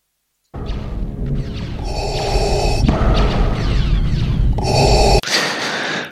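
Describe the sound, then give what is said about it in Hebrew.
Loud, close-up heavy breathing in a film soundtrack, harsh gasping inhales and exhales repeating for several seconds, sitting right in front of the listener over a dense, rumbling background. “אנחנו לא היינו מספיק קרובים כאן בשביל לשמוע נשימות אם היו כאלה, אבל שמים לנו אותם בפרצוף, הוא כאילו לידינו.”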